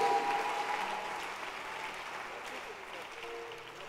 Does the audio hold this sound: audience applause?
yes